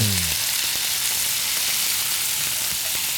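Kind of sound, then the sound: food or drink, pork sizzling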